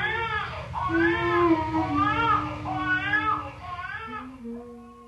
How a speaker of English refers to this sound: Next door, a mother sang softly to her crying baby.